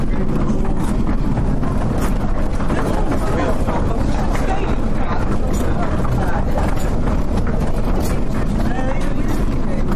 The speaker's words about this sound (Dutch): Ik sta bij zo'n steen, die is zo wat 1,40 meter 40 hoog. Een enorm ding. De molen wordt nu in, eh, in werking gesteld. wordt aan het touw getrokken. En nu...